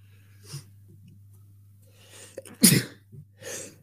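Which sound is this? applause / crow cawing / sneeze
sneeze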